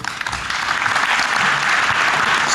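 An audience applauds author Denis Le Billan and his latest book steadily, a dense, even wash of many hands clapping at a fairly loud level throughout, with no voices heard over it.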